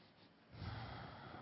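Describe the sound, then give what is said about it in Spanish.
A single deep inhalation drawn in through the nose during a guided visualization, starting softly and swelling into a strong, airy rush, with no talking. “tomando ahora una respiración profunda.”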